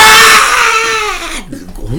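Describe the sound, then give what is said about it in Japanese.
A loud, strained, scream-like wail from a human voice imitating a large bird's call that sounds like a person screaming as if being strangled, held and slowly falling in pitch before breaking off into a short, lower gasp. “その鳥の鳴き声を聞いた時に、うん、私人が首を絞められてる、じゃないかといや最初聞いた時マジびっくりしたマジびっくりした絶対人が悲鳴上げてるええー、今のみたいなねああ”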